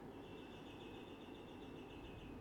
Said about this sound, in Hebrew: אוי, זה מהמם. ציפורים. ממש שמעתי את זה. כן, אני גרה בתוך יער, מסתבר.